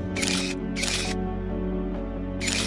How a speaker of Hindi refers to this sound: अपना याशिका कैमरा निकाला और लगा खचाखच फोटोज खींचने